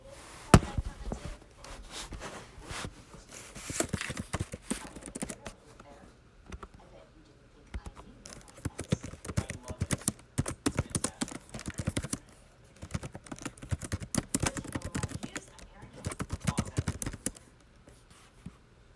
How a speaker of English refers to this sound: Enjoy my typing ASMR.